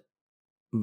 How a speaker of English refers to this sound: Gesundheit.